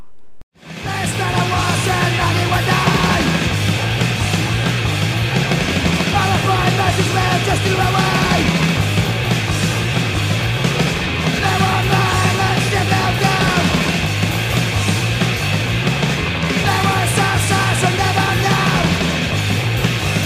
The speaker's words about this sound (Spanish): Es el tercer disco de la banda de hardcore punk